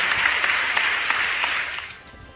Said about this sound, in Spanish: Pero de verdad que doy, aplauso para estas mujeres y, gracias por pertenecer a esta gran familia de Grupo IPS y sobre todo poniendo en alto esta gran familia.